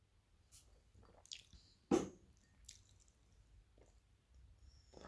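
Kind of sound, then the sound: food or drink, sipping a drink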